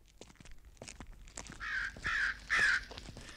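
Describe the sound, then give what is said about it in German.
Three harsh crow caws ring out one after another in the second half, fairly loud, over a quiet background with faint scattered taps like footsteps, on lonely night-time streets in Chicago. “Haben Sie das gehört, Mr. Cooper? Ja, Krähen, warum?”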